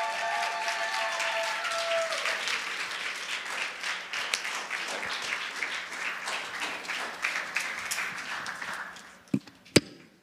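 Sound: audience applauding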